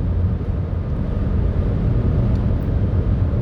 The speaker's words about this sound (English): Sorry, driving past a truck.